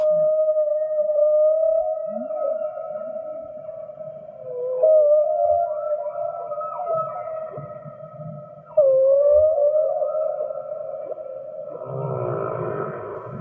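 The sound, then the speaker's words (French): A humpback whale sings in long, sustained tonal moans that bend and waver in pitch, with a few low grunts beneath and a burst of rougher, pulsing calls near the end, all without voices. “Dans différentes régions de l'océan, chaque population de baleines à bosse chante des chants très différents.”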